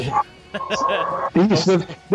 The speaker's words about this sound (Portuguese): É, tem, tem, algum cachorro latindo né, com o microfone de alguém aí.